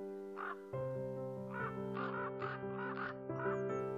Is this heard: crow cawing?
yes